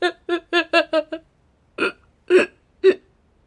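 A man's choked, sobbing hiccups on a train: a quick run of five or six catching gasps, then three slower, heavier sobs after a pause, fairly loud with no talking.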